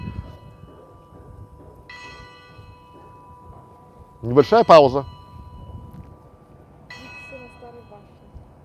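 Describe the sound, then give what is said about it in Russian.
Clock bells on an old tower ring out for twelve o'clock noon, a loud cluster of chimes in the middle with fainter strikes before and after, while a man speaks briefly. “Бьют часы на старой башне. 12 часов. Послушаем колокольный перезвон.”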